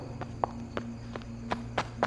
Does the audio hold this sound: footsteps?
yes